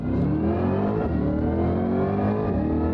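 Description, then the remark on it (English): A Corvette V8 engine revs hard and continuously, its deep throaty roar rising and holding with a dense, rumbling growl throughout. “It sounds like a fighter jet.”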